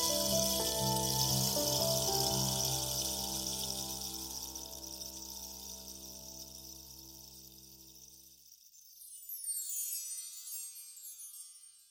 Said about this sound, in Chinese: 又是一阵下雨声，我是蜗牛，留下一道银色的尾声。